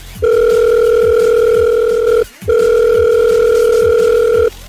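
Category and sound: signal or alarm, telephone call dialing tone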